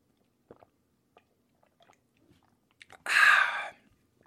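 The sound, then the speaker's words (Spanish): Someone drinking milk: a few faint wet mouth clicks, then a single loud, breathy gulp lasting under a second, heard alone with no talking. “Déjenme tomo leche para empezar.”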